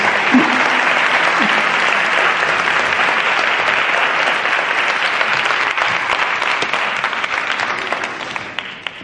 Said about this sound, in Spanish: Y ahora sí, os voy a dejar con Sergio Fernández y le recibimos con un fuerte aplauso, por favor.